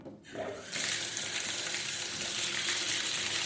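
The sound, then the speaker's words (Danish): Water splashing and rushing in a bathtub as someone takes a bath, starting after a brief quiet moment and then continuing as a steady, loud wash of sound with no talking. “Men øhm, inden vi tager afsted, så, ja, så tager han altså lige et karpad.”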